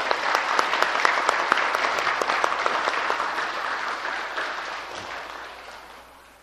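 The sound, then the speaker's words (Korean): An audience claps steadily for several seconds in thanks to a teacher at a Buddhist gathering, a dense patter of many hands that holds strong before gradually thinning and fading out toward the end. No voices are heard. “예, 이 선생님께 감사한 마음으로 어, 모두 다시 한 번 박수를 쳐주십시오.”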